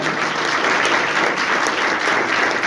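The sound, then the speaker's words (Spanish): An audience claps steadily, a dense wash of many hands applauding at an even, loud level for a few seconds with no voices standing out, a loud round of applause called for at a talk about succeeding in business. “¿Quién ha venido, aquí a tener éxito en el negocio? un fuerte aplauso porque vamos a hablar de eso hoy día.”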